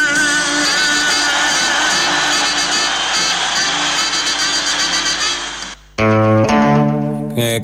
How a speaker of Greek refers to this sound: …, Παναθηναϊκό Στάδιο, 30 Σεπτεμβρίου 1974. Τροποποιημένη στίχοι όπω του τροποποίησαν τότε και ακούτε και τα χειροκροτήματα του κόσμου.